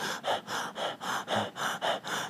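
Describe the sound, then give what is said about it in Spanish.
A person imitates the rapid, shallow chest breathing of someone restless and ungrounded: about nine quick, airy in-and-out breaths in steady rhythm, fairly loud, with no talking. “Porque cuando una persona está impulsiva, inquieta, ungrounded, lo primero que se compromete es la respiración lo primero que la lo primero que tú vas a notar en la persona es que está respirando muy rápido, como que”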